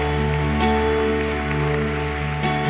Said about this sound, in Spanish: Dele ese fuerte aplauso al Señor en esta tarde. Vamos, Dios se lo merece más. Apláudale, apláudale.